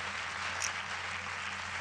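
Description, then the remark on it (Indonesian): Steady rain pours down in a dense, continuous hiss, fairly loud, with no pauses and no voices. “Nah hujan hujan lagi hujan tuh. Bukan tepuk tangan itu.”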